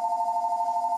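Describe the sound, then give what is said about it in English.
A telephone rings in a working church with a steady, warbling electronic tone that trills continuously for the whole second, fairly clear and unaccompanied by any voices. “That's the phone, everybody.”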